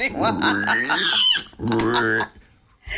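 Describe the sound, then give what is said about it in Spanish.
A man's voice imitates a pig with two loud bursts of squealing grunts, the second one shorter, then trailing off into near quiet. “Sí, sí, sí, hace el cerdo.”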